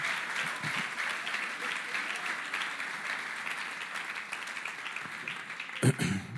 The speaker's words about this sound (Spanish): Estamos hablando claro, hermano. De un aplauso entonces para yo estar seguro de que estamos hablando claro.